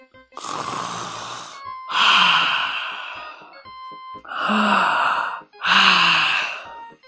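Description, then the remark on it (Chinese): A voice imitates a bear cub yawning as it walks along: four long, breathy yawns in a row, each swelling into a low groaning tone before trailing off, with short pauses between them and no other talk. “小熊边走边打着哈欠”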